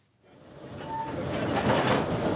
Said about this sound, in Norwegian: Det som ruller over steppene i Kasakhstan, er et tog med en rakett på toppen. Det er slik russerne transporterer sine romraketter til oppskytningsplattformen.